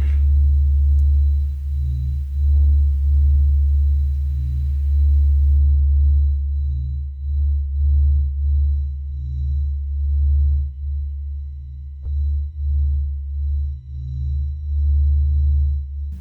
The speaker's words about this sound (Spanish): finalmente tenemos el sonido de el sol.